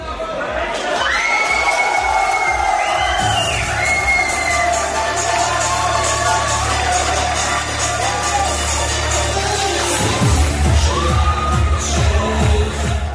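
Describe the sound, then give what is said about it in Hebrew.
A large crowd of Otzma Yehudit party activists at the party headquarters in the Vert Hotel in Jerusalem cheers loudly and continuously, celebrating their election victory, with whoops and overlapping shouts, while a steady low throb runs underneath for most of the stretch. “בעוצמות קול שהרידו את המלון המנומנם, ופה ושם גם שמענו בקבוקי ערק ווודקה, חגגו פעילי המפלגה שהתפצלו ממטה הציונות הדתית את הניצחון הגדול של הערב הזה.”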